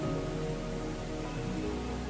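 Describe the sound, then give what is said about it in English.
A steady, dense roar of cascading water from the Rain Vortex, a 40-meter indoor waterfall at Jewel Changi Airport, its water pumped back up seven stories. Continuous and even, with a low rumble beneath the splashing hiss and no voices. “You've been hearing the rain vortex, and at 40 meters, the world's tallest indoor waterfall.”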